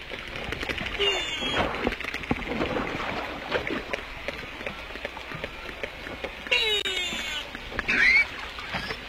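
A ship's engine roars steadily throughout, a dense continuous rumble with a washing, noisy texture, while a few brief higher-pitched cries rise above it near the end.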